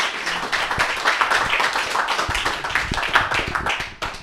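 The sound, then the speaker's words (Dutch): A crowd claps steadily in dense, sustained applause at the end of an interview conversation, many hands overlapping into a continuous patter that stays fairly loud before tapering off at the very end. “Ik denk dat iedereen ook, eh, als we dit applaus zou horen, genoten heeft.”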